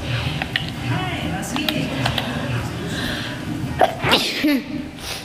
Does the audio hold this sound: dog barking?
no